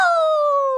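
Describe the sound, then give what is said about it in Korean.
A rooster crow sound effect used as a morning wake-up alarm on KBS radio's Good Morning Pops: one loud, sustained, bright harmonic call that glides slowly downward in pitch, heard on its own with no voices. “이번 주는 커피 알람이 아니라 치킨 알람 준비되어 있습니다.”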